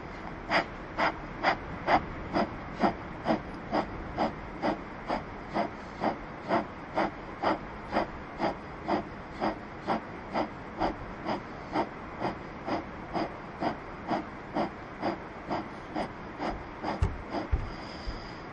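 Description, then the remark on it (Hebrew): A steady run of short, forceful nasal exhalations, about two per second, each a sharp breathy puff, repeated evenly for the whole stretch with no talking. It is a breathing exercise done sitting with an upright back: an inhale through the nose followed by short, rhythmic exhalations. “נושמים דרך האף, לוקחים שאיפה, ונשיפות קצרות וקצובות, זה הולך ככה.”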